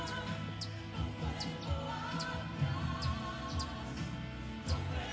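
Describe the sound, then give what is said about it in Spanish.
A small bird chirps in short, high bursts every second or so, fairly faint, along with a steady, humming melodic background of quiet singing in praise of God. “Escuchas un pajarito que hace coro.”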